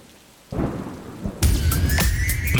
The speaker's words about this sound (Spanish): Y vamos a conocer precisamente con ese sonido cómo va a ser la lluvia para la jornada de hoy, mañana, el tiempo, la previsión meteorológica, como cada mañana